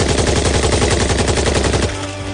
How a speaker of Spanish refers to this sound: Dispara contra unos soldados alemanes que manejan una ametralladora.